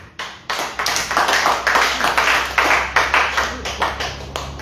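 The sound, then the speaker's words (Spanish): A church audience claps hands for Jesus Christ in a steady, rhythmic beat, loud, with the claps blending into a continuous wash of sound for several seconds. “Palmas a Jesucristo, hermano.”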